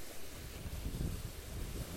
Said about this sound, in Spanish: Entonces, ¿qué tal les parece amigos el ruido ahí del mar? No sé si le alcanzan a apreciar. Pero es muy hermoso, muy rehabilitante estar en contacto con la creación de Dios